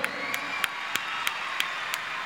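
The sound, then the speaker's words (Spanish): An audience applauds for a seminarian: a dense wash of many hands clapping, with a steady beat of sharper claps standing out roughly three times a second, with no voices. “Aplauso para Franco.”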